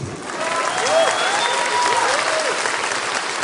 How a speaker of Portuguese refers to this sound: Uma salva de palmas para o meu filho.